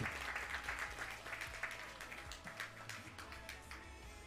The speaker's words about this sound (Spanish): Denle un aplauso fuerte al rey. Give a strong applause to the king.